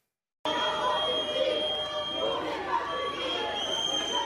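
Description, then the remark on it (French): A noisy outdoor crowd of unions and teachers protesting the arrival of French Education Minister Amélie Oudéa-Castéra on a Tuesday morning, with sustained shrill whistles, clattering banged pots and booing blending into a dense, continuous din, with indistinct voices mixed in throughout. “Une arrivée sous les sifflets, casserolades et huées pour Amélie Oudéa Castera.”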